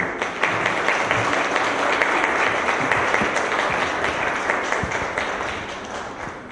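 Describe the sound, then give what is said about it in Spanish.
Sustained applause from an audience welcoming an institute commissioner at the inauguration of training courses, a dense wash of many hands clapping steadily at an even loudness for several seconds, with no voices rising above it. “Vamos a recibirla con un aplauso, por favor.”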